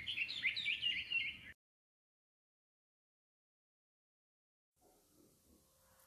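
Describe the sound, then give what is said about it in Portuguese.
A small bird under a tree chirps in a quick burst of high, bright tweets lasting about a second and a half, then stops, leaving near silence and a faint low background hum. “viu debaixo de uma árvore um passarinho que devia ter caído do ninho.”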